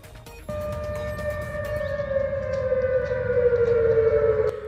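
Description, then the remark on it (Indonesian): An air raid warning siren wails steadily in the streets of Seoul, South Korea, its long sustained tone drifting slowly downward in pitch over a low rumbling background, loud and continuous from just after the start. “Sirene peringatan serangan udara terdengar mengaung-ngaung di jalan-jalan ibu kota Korea Selatan, Seoul.”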